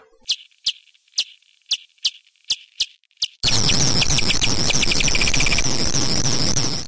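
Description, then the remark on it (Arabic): Bat echolocation calls: about seven short, high chirps at a steady pace, then a sudden loud wash of dense moth jamming clicks as the bat's calls speed up into a rapid run. “لاحظت اول صوت عباره عن صوت الخفاش قاعد يرسل اشاراته طبعا هو كل ما يقترب كل ما هالموجات هذه تبدا آه، تقترب من بعضها والصوت يبدا يتسارع لكن لاحظ جواب الفراشه الفراشه تصدر صوت اللي نهائيا نهائيا ما يخلي يضيع يضيع الخفاش”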